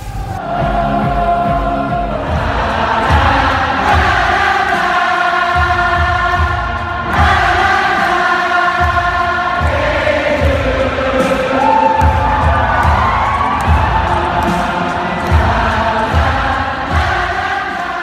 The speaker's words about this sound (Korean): 내한 공연 당시 관객들의 떼창과 한국 팬들의 열정에 감탄하는 아티스트들의 목소리 들려드렸습니다.